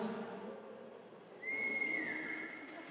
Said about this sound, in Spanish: ¿Quién, chifló? ¿Quién chifló? ¿Tú, hermana?